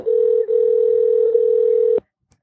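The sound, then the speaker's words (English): A telephone ringing tone plays as one steady electronic burst, loud, for about two seconds, then cuts off into silence with a faint click, as the show Animal Talk calls a guest. “Ringing.”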